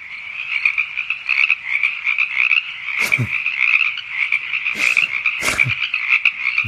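frogs croaking

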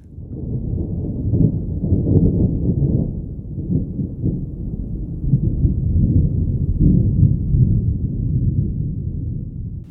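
distant rumbling thunder

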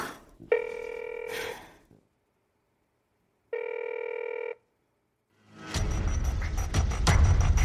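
telephone ringing

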